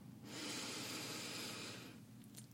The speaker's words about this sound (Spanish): quiero que nos tomemos un minutito para para respirar, a veces nos, nos toma todo el día de hacerte consciente de tu respiración. Entonces, si puedes cerrar los ojos, cierra los ojos y inhala.